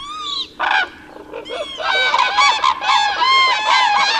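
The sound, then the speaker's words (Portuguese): Common cranes call loudly in a dense flock in November, their rolling, trumpeting bugles overlapping almost continuously after a few brief opening calls, with no voices present. “Em novembro escutamos o abib, também chamado ave fria, e o grou.”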